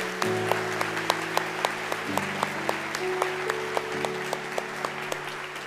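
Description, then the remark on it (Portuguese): An audience claps for the parents in a steady, even rhythm, sharp regular claps ringing out over sustained keyboard chords that shift pitch every couple of seconds. “Você pode aplaudir os pais aqui hoje?”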